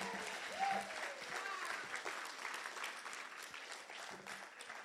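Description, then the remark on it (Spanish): An audience applauds steadily for Jesus Christ, dense clapping filling the whole clip at a fairly even level, with a faint voice calling out briefly early on. “Si tú lo crees, dale un aplauso fuerte a Jesucristo.”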